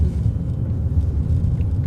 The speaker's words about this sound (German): Ja, wir fahren jetzt auf die tschechische Grenze zu